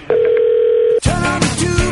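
telephone dial tone

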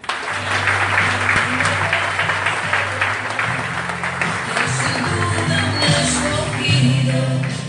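loud audience applause

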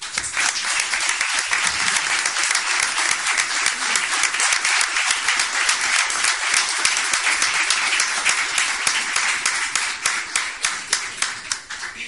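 audience applause

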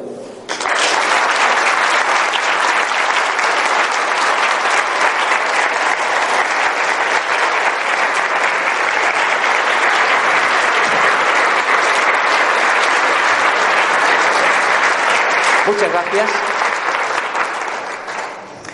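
audience applause

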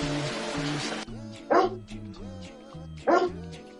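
dog barking

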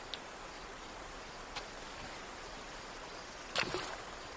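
flowing river water

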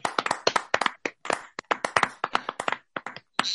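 applause

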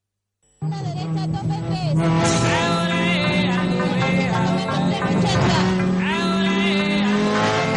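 race car engine revving

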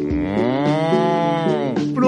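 cow mooing

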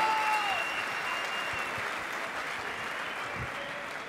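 audience applauding loudly

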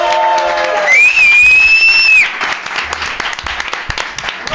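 audience applause and cheering

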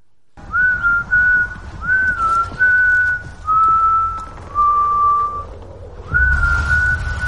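person whistling

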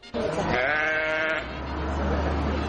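sheep bleating

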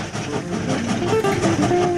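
tram rolling along rails

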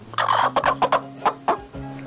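rooster clucking

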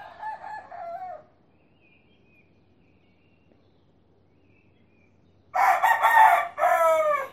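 roosters crowing at dawn

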